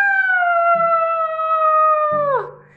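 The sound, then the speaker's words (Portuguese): A single loud, drawn-out howl of a wolf crying out in pain after falling into a cauldron of boiling water holds a steady pitch for about two seconds, then drops sharply and fades away. It is heard on its own, with no talking. “Assim que desceu pela chaminé, o lobo caiu no caldeirão de água fervente. Não aguentando a dor, ele começou a gritar: ah!”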